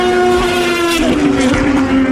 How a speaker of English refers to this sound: That's the rebellion. That that meow. That was the red rebellion. It's probably the most beautiful sounding car here. It sounds a lot brighter than the Toyotas because they're perhaps dulled by the hybrid technology on board,